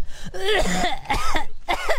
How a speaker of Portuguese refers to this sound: Não é justo eu ter que ficar aguentando você tossindo na minha orelha, né